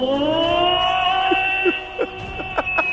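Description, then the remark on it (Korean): A third-grade child's voice imitates a siren in a voice-impression contest, holding a steady, piercing wail for about three seconds with a slight pitch glide, fairly loud, while a few faint thumps and noises sound in the background. “사이렌 소리요.”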